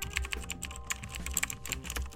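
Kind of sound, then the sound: household object, computer keyboard typing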